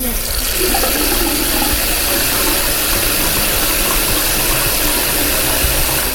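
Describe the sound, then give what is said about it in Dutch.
A water tap runs in a steady, continuous gush for several seconds, fairly loud, with no pauses and no voices. “Een waterkraan.”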